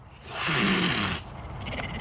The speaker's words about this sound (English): Just doing whatever cougars do. See, he sounds. He doesn't doesn't sound happy